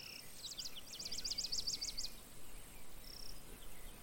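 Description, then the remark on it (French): Rapid, high-pitched cricket chirps pulse in a quick repeating train for about two seconds, then a brief faint trill follows, all over a soft outdoor background hum with no talking. “ces insectes qui, comme une escorte, vous accompagnent.”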